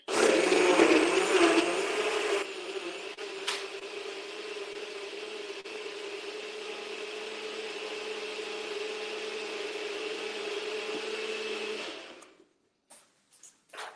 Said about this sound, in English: And that way it's ready to blend. So are you all ready? We're going to do a little blender dance here.